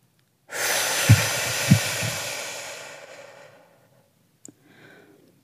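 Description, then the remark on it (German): A long, steady deep breath drawn in through the nose and held a moment during a breathing exercise, airy, lasting about three seconds before fading into a quiet pause, with a soft click and a faint breath near the end. “Tief einatmen durch die Nase. Wenn es klappt, einen Moment halten.”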